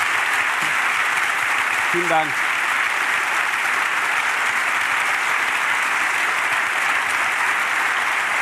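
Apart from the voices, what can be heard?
audience applause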